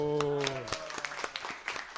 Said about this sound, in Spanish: Un aplauso para Kazu.